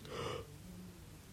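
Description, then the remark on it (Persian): A short, breathy yawn lasting under half a second, an airy intake of breath, followed by quiet room tone with no speech. “خمیازه بود”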